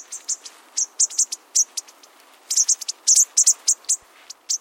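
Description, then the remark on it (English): A bushtit flock trades quick, thin, high-pitched contact calls: soft tsit notes in irregular bursts and clusters, several birds overlapping over a faint hiss, with no voices. “Their quiet calling helps them keep track of one another.”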